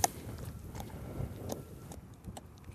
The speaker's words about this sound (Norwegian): Så her ligger kornet og agner og bøss og sånn. Og så tar jeg noen korn i munnen og tygger på dem.